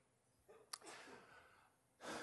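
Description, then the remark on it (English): A man in an audience sneezes once, a quick intake of breath and then a sharp, explosive burst that trails off into room noise. “and saying, Bless you to that man who's newly engaged.”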